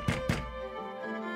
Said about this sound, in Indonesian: Lalu, dari arah pintu terdengar suara ketukan sambil mendorong.